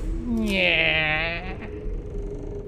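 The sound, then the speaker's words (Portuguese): An unlocked wooden back door to a crypt creaks open by its handle in one long, drawn-out groan with a wavering, strained pitch, fairly loud, then fades into quiet. “Dessa vez, Verne coloca a mão na maçaneta da porta e, para sua surpresa, a porta está destrancada e quando ele abre.”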